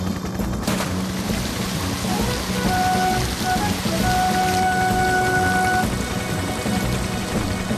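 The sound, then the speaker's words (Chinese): A thunderstorm with heavy, steady rain pouring down throughout, a sharp crack early on like a lightning strike, and low rumbling underneath. No one speaks. “哦，我好担心你们被闪电击中了。”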